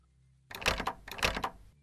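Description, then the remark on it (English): A door opening sound effect: two rough scraping bursts about half a second each, fairly loud, with a brief pause between them and quiet before and after. “You go to open the door”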